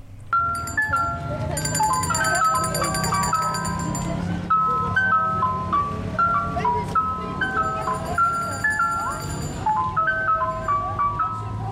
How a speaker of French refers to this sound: Cette petite musique entêtante, c'est celle du marchand de glace qui retentit tout au long de la journée et ça reste vraiment très très fort dans la tête, c'est super agréable.